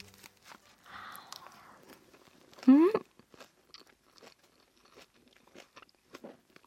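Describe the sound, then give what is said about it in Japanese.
Crisp, crunchy chewing of a fresh takeout salad with sesame oil dressing, with a burst of loud crunching and scattered smaller bites and mouth sounds continuing afterward, no talking. “うんうん このみずみずしさ音で伝わりますかねめちゃめちゃ美味しいですねやっぱりさすがだわもうこれだけで満足みたいな風に思うんですけれどね”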